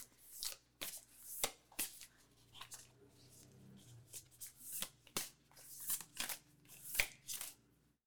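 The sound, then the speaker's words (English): Oracle cards are shuffled and drawn from a deck, with a steady series of sharp riffling snaps and papery slides, some faint low background hum underneath and no talking. “All right, so let's see what we done pulled out the deck.”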